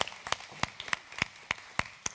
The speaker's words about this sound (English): And if you are here, we welcome our first time guests with a hand clap. So, can we just clap for our first time guests? Say thanks for being here.